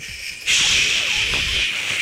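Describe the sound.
A voice imitates radio static: a sudden, steady hissing noise starts after a short pause and holds loud for over a second, with no words spoken.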